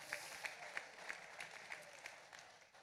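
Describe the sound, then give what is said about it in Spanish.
An audience applauds steadily for about three seconds for the people watching online, a dense patter of clapping with a regular beat of sharper claps running through it, fairly soft overall and with no voices. “Un aplauso, por favor, a la gente en línea.”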